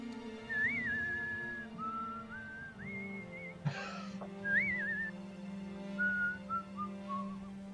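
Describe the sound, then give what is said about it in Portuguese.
A person whistles a western-style theme melody, with sliding, wavering notes in short phrases over a steady low hum, briefly interrupted by a sharp click midway. “Agora não vai ser mais tema western, né? Assobio”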